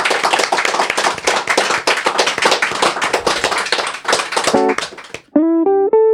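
A crowd applauds with dense, steady clapping for about five seconds, fading out as a short electronic jingle of bright synth tones begins.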